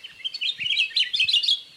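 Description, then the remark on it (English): An 'Akiapōlā'au, one of Hawaii's rarest birds, calling in its remote Hawaiian island home: a quick run of bright, high chirps and warbled notes, clear with no voices, lasting about two seconds. “In a race against extinction, people are working to restore habitat and control deadly invasive species so that Hawaii's rarest birds, like the 'Akiapōlā'au, have a future in their remote island homes.”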